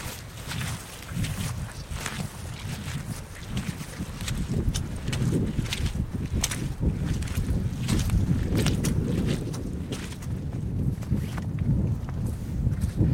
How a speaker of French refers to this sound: Alors que le vent souffle euh, sur cette colline, est-ce qu'on peut se rapprocher un peu du sommet de la colline Oui. Pour avoir encore plus de vent